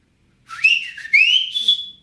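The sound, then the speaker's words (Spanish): A person whistles by mouth a short two-part family signal call, the one their father whistled on arriving, each phrase sliding upward in pitch and then holding, loud with no talking around it. “Y ese era el de la familia. Mi papá llegaba y chiflaba...”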